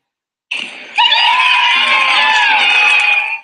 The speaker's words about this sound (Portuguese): É, o vídeo estava no momento de palmas e não era o que nós queríamos, meu.